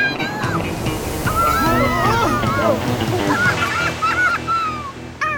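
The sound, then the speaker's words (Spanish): Large waves rush in and wash over a sandcastle with a loud, steady roar of churning water, while several voices exclaim and chatter over the surf throughout. “Lo malo es que no debí decir grandes olas.”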